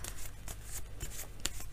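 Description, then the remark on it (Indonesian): Tarot cards being shuffled for a Sagittarius love reading: a quick series of crisp, papery riffles and snaps, roughly eight bursts in under two seconds, with one sharper flick near the end, over a low steady hum and no voices. “kartu yang keluar adalah semesta.”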